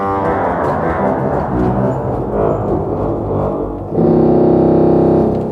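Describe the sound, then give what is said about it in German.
A deep, buzzy organ tone from reed (tongue) pipes sustains low in the double-bass register, rich in rasping overtones, then shifts to an even louder, steadier held note partway through. No voices are heard. “Das war das die Cellolage, jetzt der Kontrabass.”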